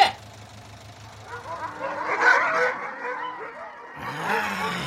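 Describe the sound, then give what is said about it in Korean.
Several dogs at a dog farm bark repeatedly, the overlapping barks swelling in the middle and again toward the end over a low background rumble. “아, 저, 저기 저게들 심하게 짖던데 뭐 아는 데길니까?”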